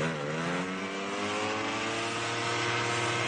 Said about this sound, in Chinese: 哎，这位女士就从车库里把那辆样车给拽出来，哎，启动后就开跑了。这一跑就跑了九十公里。哎，这让这个路旁正在干活的人们生平第一次听到了内燃发动机的轰鸣声。